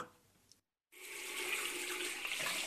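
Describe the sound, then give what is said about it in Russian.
After a brief silence, water gushes steadily from an opened tap into a sink, filled to float little toy boats; a loud, continuous hissing splash with no voices. “ты зачем кран открыл? Зачем столько воды в раковину налил?”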